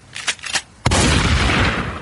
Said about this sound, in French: La poupée se saisit de mon fusil de chasse qui traînait sur la table basse et tire sur une des nombreuses bonbonnes de gaz qui occupent mon appartement.